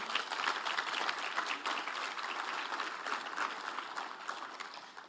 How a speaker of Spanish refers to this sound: Pero nosotros, denle un aplauso al Señor, sí.